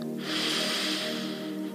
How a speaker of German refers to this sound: Wir atmen nochmal ein.